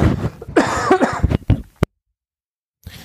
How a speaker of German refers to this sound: Ja, äh, da haben wir den nächsten Husten.